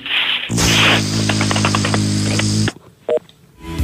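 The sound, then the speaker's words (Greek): A loud burst of crackling static with a low electrical hum on a bad phone line runs for a couple of seconds, broken by rapid clicks, then cuts off into a faint line hiss with a brief tone. “Ναι, απλά δεν έχεις καλή γραμμή, σ' ακούω πολύ βουβό, τι, τι ε, Για κάνε κάτι, για κάνε κάτι.”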